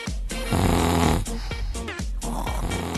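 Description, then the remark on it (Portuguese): Loud snoring: a run of rough, rattling snores in quick succession, each throaty rasp breaking off briefly before the next, with no talking. “Você tá dormindo?”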